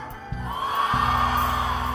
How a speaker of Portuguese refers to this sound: Grite de alegria. Como que é para fazer? Então quero ver se você pode. Dá um grito aí comigo. Vamos lá.